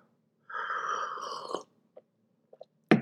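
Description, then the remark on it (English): A loud slurp of tea lasting about a second, then a few soft swallowing clicks and a brief sharp sound at the end. No one speaks. “I'll knock off this tea slurping. It must be horrible on the other end of this.”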